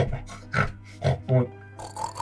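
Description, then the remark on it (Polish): A person makes a few short, nasal pig-like oinks and grunts in an uneven rhythm, mimicking a pig as if speaking to pigs, with no other talking. “Pan potrafi rozmawiać z- ze świniami?”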